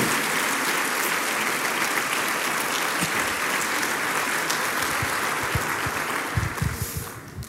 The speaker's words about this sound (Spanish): ¿Cuánto le dan un aplauso al Señor?